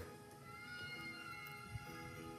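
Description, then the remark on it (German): Whale song: long, sustained tonal calls with layered harmonics drifting steadily, fairly quiet and continuous, with a faint low thump partway through and no voices. “Klingt schon seltsam, dieser Wahlgesang.”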